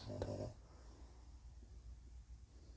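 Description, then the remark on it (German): A dog gives a single short snort or grunt right at the start, fairly quiet, then only faint low background hum remains. “Auch mein Hund hat dies gerade kommentiert und findet, dass dies wirklich verrückt ist.”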